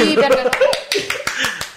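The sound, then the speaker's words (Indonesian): A quick, steady run of hand claps at the start of a game, roughly ten sharp beats in under two seconds, fairly loud while people talk and laugh underneath. “tepuk tangan dulu biar biar rame”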